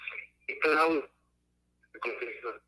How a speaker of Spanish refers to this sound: se está cortando la, la llamada de teléfono. No sé si hay un lugar donde haya más señal.